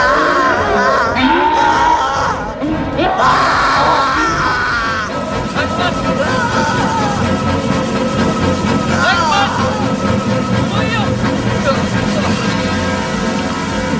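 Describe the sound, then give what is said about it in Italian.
In a film scene with Bill Murray set in a hotel, several voices scream and yell frantically on coming face to face with Slimer, loud, with wavering high-pitched cries over a dense, chaotic background that continues steadily after the shouting eases. “C'è tutta questa scena no? di, di gridate, di urla fossennate”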